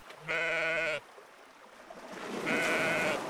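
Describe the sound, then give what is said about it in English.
Two sheep bleats, a loud, wavering one early on, then a second fainter bleat over a rising noisy background like wind or water. “The sheep wandered freely, leaving droppings everywhere.”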